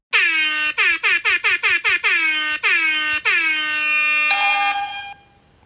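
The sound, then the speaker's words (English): A loud air horn blares: one longer blast, then a rapid string of short honks, then two longer ones, ending in a sustained blare. No one speaks. “you brought a submarine's radar to an air horn party.”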